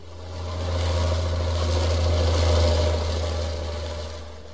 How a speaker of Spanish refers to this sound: Yo creí que no habías oído el jeep.